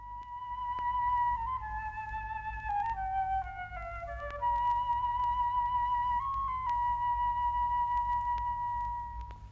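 transverse flute playing

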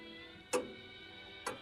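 clock ticking

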